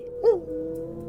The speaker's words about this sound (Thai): มาถึงตอนนี้หมาก็หอนกันใหญ่